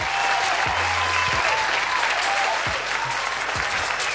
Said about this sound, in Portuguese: Palmas, vamos comemorar.